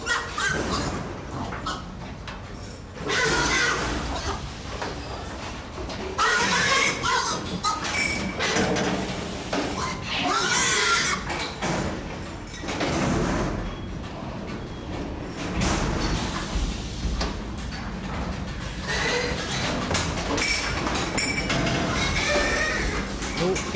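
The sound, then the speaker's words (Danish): A pig, one of a long line led in one by one, is driven into a slaughterhouse stunning machine, where stunning takes about 10 seconds, amid constant loud machinery noise, with harsh squeals, clanks and a sliding-door thud. Voices can be heard faintly in the background. “der en gris ind i støvanlægget. Og i et øjeblik kommer grisen ud igen. Det gør den nu.”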